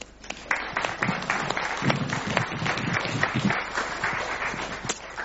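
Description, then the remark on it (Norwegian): Applause from an audience as thanks to the participants at the end of a discussion: dense, continuous clapping that stays fairly steady for several seconds, with many overlapping sharp claps forming a crackling wash of sound. “Vi kan jo gi en applaus.”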